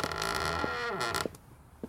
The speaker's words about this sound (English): A creaking door cuts through the thick air.